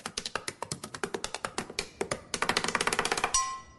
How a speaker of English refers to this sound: Right up there with the woman who taps her pen like she's doing a drum solo at a sold out arena.